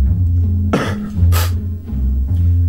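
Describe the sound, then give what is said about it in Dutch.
A man coughs twice in quick succession, two short, harsh bursts rising over a steady low background hum, fairly loud. “De hoest op het einde is trouwens altijd die van”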